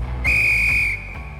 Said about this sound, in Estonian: lõpuvilega saab jalgpallis otsa higivalamine ja algab kolmas poolaeg